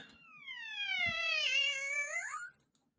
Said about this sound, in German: Ja. Ein Babykätzchen. Ein kleines Babykätzchen.